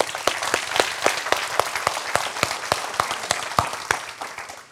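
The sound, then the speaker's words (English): An audience applauds steadily in church, a dense patter of many hands clapping with sharper individual claps popping out at an even, brisk pace throughout, moderately loud with no voices over it. The applause thanks a power line crew for restoring the lights after a thunderstorm. “Um, can you give these guys a hand clap?”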